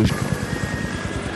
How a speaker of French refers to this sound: alors ici, euh, hélicoptère de surveillance H34, euh, je suis en train de survoler les suspects.